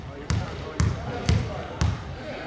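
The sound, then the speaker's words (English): A basketball bounces four times at a steady, unhurried rhythm, each thud sharp with a brief echo, as a player stands at the free throw line during a pro basketball game in a tiny arena with 550 people, otherwise hushed. “When a player's at the free throw line, it's really quiet. Sounds more like a practice than a pro basketball game.”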